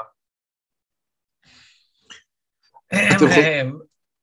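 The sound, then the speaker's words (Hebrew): A single loud, throaty cough bursts out by accident after a few seconds of near silence and soft breaths, lasting under a second. “כן, אה, בטעות יצא לי שיעול אה, כזה, זה קצת לקי, אז כן.”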